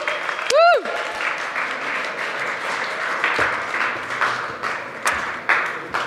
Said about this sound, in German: Die Israeliten klatschen für euch. Die freuen sich, dass sie nicht mehr alleine sind.